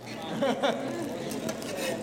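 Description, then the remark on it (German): Steady frying hiss from fish sticks in a pan, crackling continuously for a couple of seconds, with a brief voice and light kitchen clatter partly over it. “So, aber brutzeln ganz gut.”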